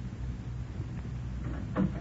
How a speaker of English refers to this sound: Then the door opened, and in came the lady in gray.